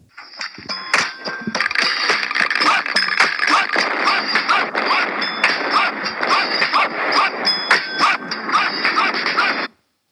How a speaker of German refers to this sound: Ähm, für jeden, der es nicht weiß, das ist das Intro-Lied von äh, Style Wars. Nee, Quatsch, Beat Street. Wild Style. Wild Style, genau.